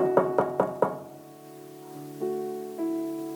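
Four quick, evenly spaced knocks as if rapping on a wooden door, fairly loud, followed by a low sustained tonal hum with no speech.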